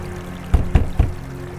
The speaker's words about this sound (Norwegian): Han flyter over en liten bekk.